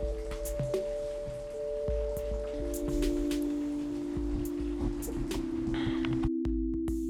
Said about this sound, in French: On a été interrompu un peu par la pluie, mais euh, on peut reprendre et conclure alors.